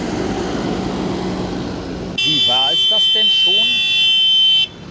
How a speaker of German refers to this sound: Ja, ich habe jetzt Tinnitus, danke. Ich hoffe, dem brennt gleich mal seine Hupe durch.